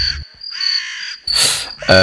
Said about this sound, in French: C'était des corbeaux ou des, corneilles peut-être.